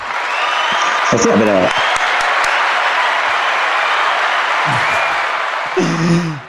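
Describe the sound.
Sustained applause from an audience fills the whole stretch, a dense, steady wash of clapping with brief bits of voices breaking through near the start and end.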